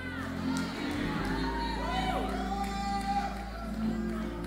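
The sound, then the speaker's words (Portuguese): An audience shouts and cheers together for Jesus, many overlapping voices rising in a loud, continuous roar with whoops and cries running through it, sustained throughout with a low rumble underneath. “Eu quero que todo mundo grite para Jesus.”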